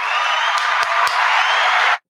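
A short burst of steady applause from a crowd for a man, dense and even, lasting about two seconds before cutting off abruptly. No one speaks.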